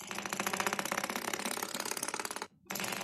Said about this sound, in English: that one is Jazzy has a spinning prize board